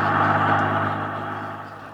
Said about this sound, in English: that's a Los Angeles bus. What's it doing up here in Alaska? It must be the bus that runs to the Los Angeles city limits.